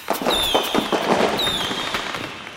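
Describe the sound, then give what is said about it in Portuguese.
Fireworks light up the sky in a dense, continuous barrage of crackling bangs, with high whistling rockets streaking through twice over the steady roar of explosions. “De repente, um barulhão toma conta dos céus que se iluminam em fogos de artifício.”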